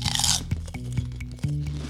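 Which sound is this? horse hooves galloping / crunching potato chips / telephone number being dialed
crunching potato chips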